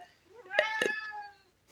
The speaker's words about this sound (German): meine Katze möchte auch mit in den Podcast, wie man hört